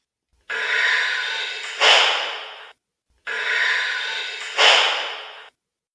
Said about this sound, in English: So, I mean, it's definitely can hopefully if there are other Sumatran rhinos in the jungle, they can hopefully hear it theoretically. But the whistle blow of the Sumatran rhino is going to sound something like this.